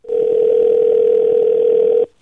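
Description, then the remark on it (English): A single steady electronic ringing tone of an outgoing phone call, made to call a man back, sounds once for about two seconds, loud and clear, then cuts off abruptly. No one speaks. “I'm calling him back, and uh, here we go.”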